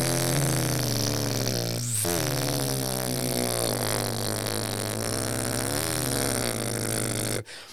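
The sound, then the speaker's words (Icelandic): A voice imitates the steady, buzzing drone of a small propeller airplane on a sightseeing flight over Reykjavík in good weather, a loud low rumbling 'brrrr' held for about seven seconds before it stops abruptly. “og síðan er gott veður og þá ákveða þeirra að skella sér í smá svona útsýnisflug yfir Reykjavík og þá er þetta hérna brrrr”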